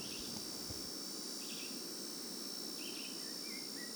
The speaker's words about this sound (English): the first time I heard the sounds of this forest, I really felt like I was in another planet